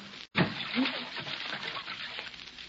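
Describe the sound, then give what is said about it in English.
Water sloshes and splashes in a bathtub as someone goes under the water, starting with a sudden burst after a brief silence, then a steady churning wash that continues at moderate loudness throughout. “Well, you can come out from under the water now, darling.”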